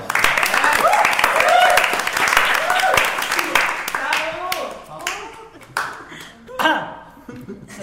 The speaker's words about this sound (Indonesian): tepuk tangan dong